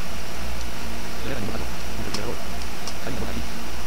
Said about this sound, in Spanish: Se escucha la nevera.